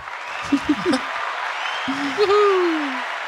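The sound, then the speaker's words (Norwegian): A live audience claps steadily in a dense, crackling wash, with a few short voiced whoops early on and a longer falling cheer near the end. “Så brukbart gir en applaus til de.”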